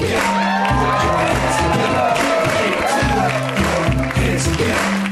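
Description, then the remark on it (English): A live audience at the UCB Theater applauds and cheers loudly for host Cameron Esposito, with whoops and shouts rising over steady clapping while a thumping beat plays underneath throughout. “Please turn off your cell phones because we are recording tonight, and please put your hands together for your host, Cameron Esposito.”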